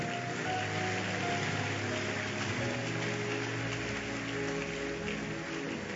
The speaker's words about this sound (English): Let's honor them as they go. Thank you so very much. Thank you so very much. Koinonia, are you still clapping?